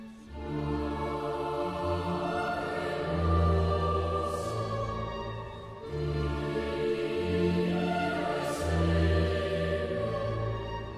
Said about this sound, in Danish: Det musik, du kan høre, er skrevet af Wolfgang Amadeus Mozart.